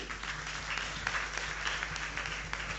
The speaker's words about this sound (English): Ladies and gentlemen, a round of applause for them.